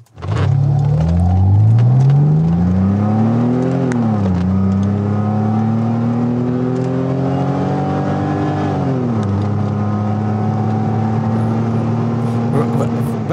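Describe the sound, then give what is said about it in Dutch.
The six-cylinder engine of a 190E 2.6, fitted by AMG with a 3.2 engine, revs up loudly, its pitch climbing through gears, dipping, then holding a steady, rumbling drone before easing off near the end. “Dat was eigenlijk een 190E 2.6. Dat was de, de 190 met een 6cilinder. En daar werd dan door AMG een 3.2 motor ingelegd.”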